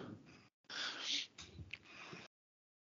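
A sharp, breathy gasp close to the microphone, followed by a longer rush of air and a few ragged breaths, with no talking.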